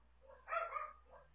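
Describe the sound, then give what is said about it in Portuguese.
Many dogs bark in a short burst, one louder bark followed by a softer one, muffled against a low background hum, with no talking. “Nossa, tem muito cachorro latindo aqui, tá...”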